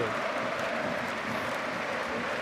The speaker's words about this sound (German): Und es gibt viel Applaus.